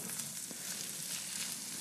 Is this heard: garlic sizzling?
yes